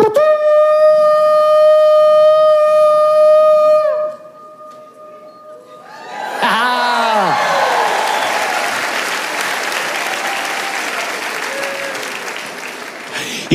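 Priests' trumpets blow one long, steady, bright note for about four seconds on their seventh march around the city of Jericho, then after a brief lull a loud roaring crowd noise, the army shouting, surges in and continues to the end.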